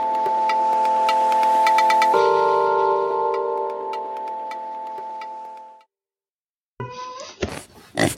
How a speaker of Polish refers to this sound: Przepraszam. Słyszałeś, słyszałeś kota? Słyszałem kota. Tak. Trzeba chwilę uspokoić.